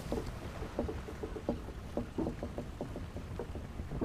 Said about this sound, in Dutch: Ik hoor klotsen van het water rond de boot.